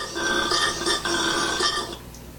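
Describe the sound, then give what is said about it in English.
A deep, rasping animal bellow of a koala, rough and pulsing like a drawn-out snoring grunt, loud for about two seconds before trailing off into quiet. “That's a koala.”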